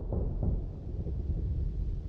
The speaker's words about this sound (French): Un orage se prépare, c'est étrange, se dit Jules.